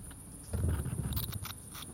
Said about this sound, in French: La nuit est en train de tomber. Des crépitements aigus se font entendre. Une colonie de chauves-souris a élu domicile dans les crevasses.